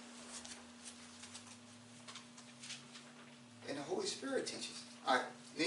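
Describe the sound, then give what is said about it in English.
Soft, papery rustles and flutters of Bible pages turning as people look up a chapter, over a steady low hum, growing busier and louder in the last couple of seconds. “Still get some pages turning, so I'll wait.”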